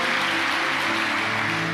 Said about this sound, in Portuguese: Pode aplaudir o Senhor